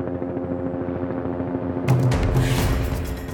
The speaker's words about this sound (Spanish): Es un helicóptero Bell 47 cruzando la muralla de la penitenciaría